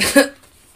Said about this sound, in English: I just snorted.